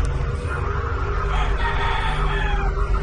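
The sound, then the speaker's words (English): A rooster crows loudly outside at about two in the morning, one long drawn-out call held for about three seconds over a steady low rumble of background noise. “Yung mga nakasinig kami medyo ano na alas dos na ng madaling araw kaya tumitilawak yung manok sa labas.”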